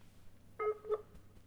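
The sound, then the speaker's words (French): A Skype video call ringing tone during lockdown: two short electronic tonal chimes in quick succession, moderately loud over a faint background hum, with no voices. “Ah, ça c'est le bruit magique de Skype depuis le confinement.”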